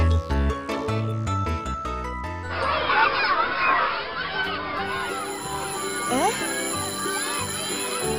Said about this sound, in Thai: เสียงออดดังแล้ว …ต้องไปเข้าเรียนแล้วล่ะค่ะ